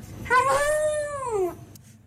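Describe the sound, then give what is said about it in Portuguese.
A dog named Lorna gives a single drawn-out, howling vocalisation that rises and then falls in pitch, sounding almost like saying "hello", fairly loud with no talking. “um cão que diz hello”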